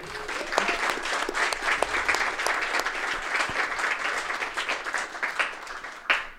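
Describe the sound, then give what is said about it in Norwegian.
Steady applause from a live audience, many hands clapping at once in a dense, sustained wash for several seconds, loud, with a brief swell near the end before fading. “Applaus til hånd.”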